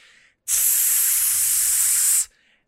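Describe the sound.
A voice imitates air leaking from a tire with an inch-and-a-half-long gash, at a gas station: one loud, steady, breathy hiss lasting nearly two seconds, with softer hissy breaths just before and after.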